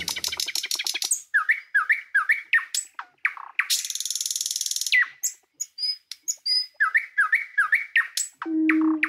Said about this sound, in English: That's the actual nightingale song coming in.